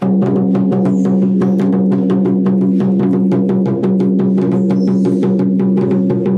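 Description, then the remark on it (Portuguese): A steady, rapid percussion rhythm of evenly spaced strikes, loud, played over a sustained humming tone, forming a repeating calling beat played to wake the lion, with no voices. “aí vai ter um toque específico. Um, um toque meio de chamamento.”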